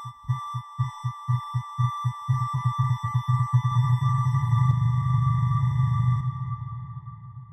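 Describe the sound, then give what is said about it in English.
Low electronic beats, each representing 350 people leaving UK payrolls, pulse steadily, then speed up as the number rises to more than 15,000 a day in April, until they blur into a continuous droning rumble beneath steady high tones, before fading out abruptly. “Each beat is the sound of 350 people leaving the payroll.”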